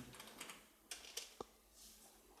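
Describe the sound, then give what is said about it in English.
Quick, irregular clicks of keys being tapped on a computer keyboard while deleting a thread, fairly quiet, with a few sharper strokes standing out and no one speaking. “Why is my keyboard so far away?”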